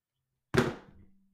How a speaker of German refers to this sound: Okay. Ich werf die Münze. Dann wirf doch mal deine Münze.